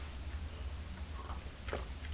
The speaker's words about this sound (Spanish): Así que ahora me voy a dar este sorbito, un sorbito de agradecimiento con estar aquí pudiendo hablar con ustedes, comentando las noticias del día. Así que el primer sorbito del día allá va.